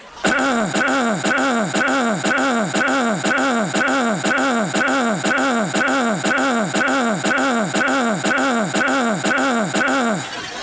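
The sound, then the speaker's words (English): A throat-clearing sound repeated over and over in a steady, rapid loop, each identical gravelly burst falling in pitch, continuous and loud for about ten seconds with no talking. “Hang on a sec, I gotta clear my throat.”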